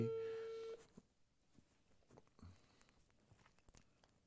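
A phone call's ringing tone as a call is placed to a viewer: one steady, mid-pitched beep lasting under a second, followed by quiet rustling and faint clicks while the line waits.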